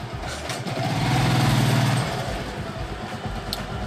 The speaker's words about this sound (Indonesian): ini sorry nih bro ada suara suara ini. Ada suara-suara motor nih. Emang hmm, kita lagi di basement. ini ngomongnya lagi di basement. Jadi basement biasanya kan mobil nih kita motor semua berjejer showroom.